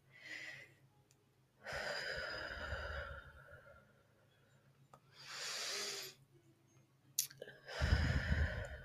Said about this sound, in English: So like I'll do breathing exercises like that. I'll press down on my on my chest.